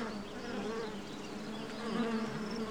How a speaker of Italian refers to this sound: Senti anche tu questo ronzio sempre più forte, Nubes! Sì, viene da quello sciame di api lassù! Guarda, Devono essere uscite dall'arnia che c'è qui dietro in cerca di nettare.